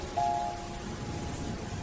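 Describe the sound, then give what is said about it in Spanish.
Steady, soft rainfall hisses evenly throughout, fairly quiet and continuous, with a faint brief tone near the start and no voices. “Todo está turbio, oscuro, llueve.”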